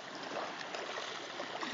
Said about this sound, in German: Sitzt jetzt hier so, dass mir die, die Wasser noch um die Beine plätschert.